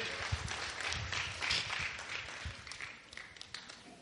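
A crowd applauds steadily for a person who has just voted, many hands clapping in a dense, continuous patter that tapers off slightly toward the end, with a faint voice mixed in underneath.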